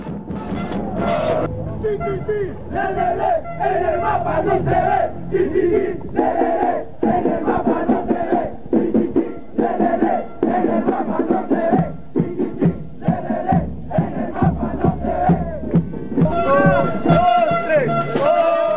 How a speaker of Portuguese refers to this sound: E daí esse áudio que a gente vai ouvir agora são os argentinos e os peruanos se juntando na Copa América, cantando essa provocação ao Chile, né? pegando o principal grito do, do grito de guerra dos chilenos e é, gozando com a cara deles.